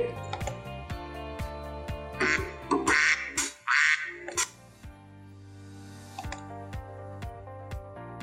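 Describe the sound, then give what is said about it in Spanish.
A cluster of loud, raspy duck quacks bursts out in the middle, set against a steady, rhythmic ticking background that runs before and after them. “Very good. A duck. Un pato.”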